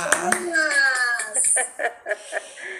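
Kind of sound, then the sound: crowd, clapping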